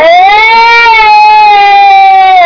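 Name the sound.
baby crying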